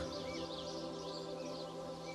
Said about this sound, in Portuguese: Esses sons como o canto dos pássaros ou o murmúrio das árvores, trazem uma sensação de calma e serenidade para o seu coração.